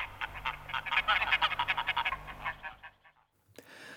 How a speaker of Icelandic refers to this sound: Og þarna heyrðist í gæs